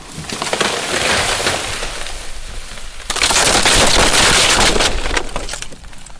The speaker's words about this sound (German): Plötzlich wird ein Baum vom Wind entwurzelt. Der Baum fällt auf den Zaun und es entsteht ein großes Loch im Zaun.